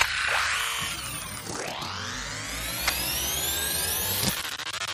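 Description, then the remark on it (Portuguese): A plane, diverted by the airport over a home where planes never normally pass, roars overhead, a steady loud rush layered with high whining engine tones that glide and sweep in pitch throughout, with no one talking. “o aeroporto resolveu desviar todos os aviões pra cima da minha.”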